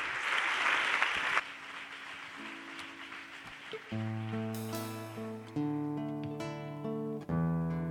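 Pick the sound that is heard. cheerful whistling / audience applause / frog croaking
audience applause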